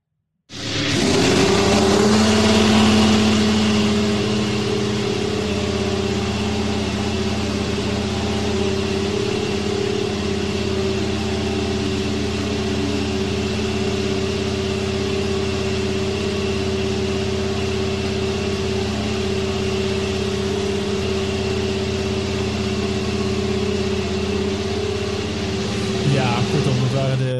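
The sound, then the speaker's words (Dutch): The Haas VF21 Formula 1 car's engine fire-up in the pit lane of the Sakhir circuit in Bahrain: the engine starts abruptly and settles into a loud, steady, high-revving idle with strong harmonic tones, droning continuously for nearly half a minute with little change in pitch. “Dat is dan de zogenaamde Fire-Up en dat is dan van de VF21.”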